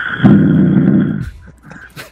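A man snoring loudly while asleep, lying down with a phone on his chest: one long, deep, rattling inhale that rumbles low and rough for about a second before trailing off into softer breathy sounds.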